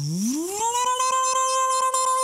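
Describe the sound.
A person vocally imitates an Esper car engine, the buzzy tone sweeping upward in pitch like revving, then holding a steady, loud drone for nearly two seconds.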